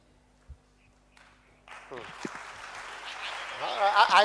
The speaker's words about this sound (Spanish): No sé por qué estás aplaudiendo.